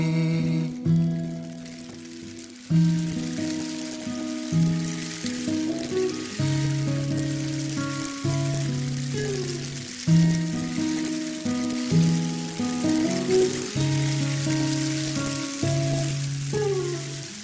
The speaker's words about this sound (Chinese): 周一的清晨还在下雨。